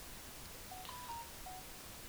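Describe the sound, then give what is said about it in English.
A phone gives off a few faint, short electronic beeps in quick succession, thin tones sitting over a steady background hiss, with no one talking. “Sorry about the phone.”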